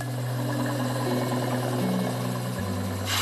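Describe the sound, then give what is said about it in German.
A grinder runs steadily against a glass bottle, a low motor drone with a harsh, continuous grinding hiss above it. The motor's pitch shifts briefly near the end. No one speaks. “Das heißt, ich muss hier vorne schleifen, gell?”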